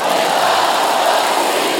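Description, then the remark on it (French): A large audience at a comedy gala in Lausanne shouts a chant together in chorus on a count of three, a loud, sustained roar of many voices blending into one dense wall of sound for a couple of seconds. “À trois, on crie ensemble, en chœur, on n'est pas à Montreux ici.”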